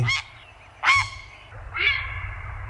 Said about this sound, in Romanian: Stai mă puțin, mai dă înapoi, te rog frumos, gâsca.